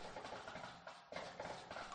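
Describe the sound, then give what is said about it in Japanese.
A dense patter of many footsteps, a crowd moving on foot, with a steady clattering rhythm that briefly thins out midway before continuing. No one speaks. “大勢の足音が聞こえてくる。”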